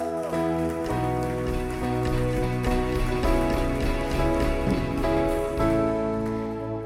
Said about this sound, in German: Du darfst gerne mal vorkommen. Gebt doch einen grossen Applaus.